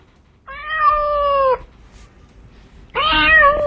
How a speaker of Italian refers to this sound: Questa è gatta o gatto? Gatta. Gatta, femminuccia.